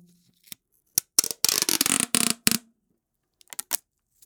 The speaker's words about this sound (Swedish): Okej, då kommer ljud mm. nummer ett. Ja, oh, en tejprulle. Ja! Eller hur? Fan vad bra. Det är så Otroligt tydligt, alltså. bra ljud alltså.